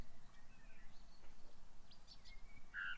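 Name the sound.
small birds chirping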